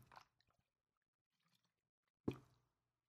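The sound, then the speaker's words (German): Someone takes a drink of water: a short slurping sip, a few faint wet clicks, then one loud, abrupt gulp near the end. “Ich muss noch, äh, ich habe hier noch ein bisschen Wasser, mein Booster.”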